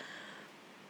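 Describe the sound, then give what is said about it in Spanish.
Soft, steady rain hiss fills the background, a faint continuous wash of noise with no pauses or distinct drops standing out, and nobody speaking. The rain has only just begun to fall. “Perdón si escuchan lluvia de fondo, pero recién empezó a llover y esto no estaba en mis planes, literalmente, así que mil disculpas si llegan a escuchar la lluvia.”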